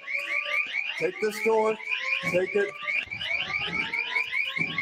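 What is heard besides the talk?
fire alarm horn sounding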